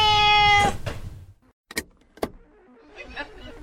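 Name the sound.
cat meowing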